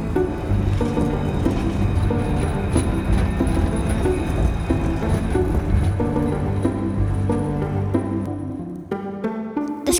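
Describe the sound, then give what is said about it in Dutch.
A train journey by public transport in the Netherlands towards Uitgeest, North Holland: a loud, steady rumble of rolling carriages with humming tones runs continuously throughout, shifting near the end to brighter sustained notes. No one speaks. “Ja, na een, eh, weer een lange eh, treinreis zijn wij inmiddels bij Marcel van Herpen aangekomen.”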